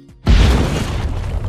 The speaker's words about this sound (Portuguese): À espera de Fatinha, Amâncio ouviu uma explosão.